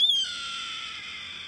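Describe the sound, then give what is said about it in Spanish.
A single raspy hawk scream, a red-tailed hawk's cry that starts high, slurs downward and holds as a harsh, hoarse note for over a second, loud with no other sounds. “Pero en realidad ese es el sonido del alcohol de cola roja que lo usan para doblar el sonido de la águila.”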